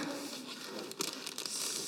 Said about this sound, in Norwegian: Og så kan nestemann få lov å skjære litt på den teipen der. Ja, da skjærer du den teipbiten der.